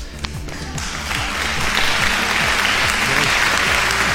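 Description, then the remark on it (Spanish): A crowd in the offices of Estridente Radio Company breaks into loud, sustained applause welcoming a guest, swelling after the first second and staying dense and steady, with a faint murmur of voices underneath. “¡Qué aplausos, aplausos, aplausos?”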